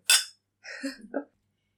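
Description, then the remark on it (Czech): A single bright glassy clink rings out and fades quickly, followed a moment later by a short spoken phrase, as in a toast. “Na zdraví. Na zdraví.”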